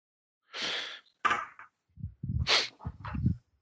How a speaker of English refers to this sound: There's kind of a sob and a sniff.